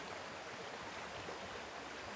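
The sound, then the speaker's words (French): Steady, continuous rushing of a flowing stream and small waterfall beside a path through open country with forest and fields, in fine weather; an even hiss of water with no pauses and no voices. “Je me trouve actuellement en pleine plaine, sur le chemin, la forêt, les champs, le beau temps, un ruisseau, une cascade.”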